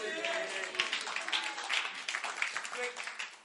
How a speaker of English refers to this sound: Thank you for clapping.